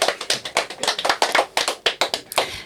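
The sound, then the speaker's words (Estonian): Applause from a small audience after a poem is read at a literary reading: a steady flurry of sharp, overlapping hand claps with an irregular rhythm, fairly loud and with no talking over it. “ja plaksutada ka.”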